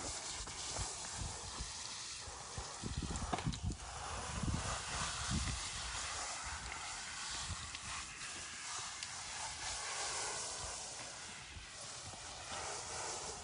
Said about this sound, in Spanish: ¿Te gusta salir a la lluvia y luego no te gusta que te moje yo con la manguera?